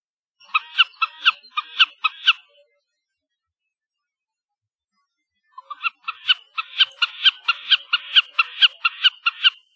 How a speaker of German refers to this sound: dass die Bekassine Vogel des Jahres ist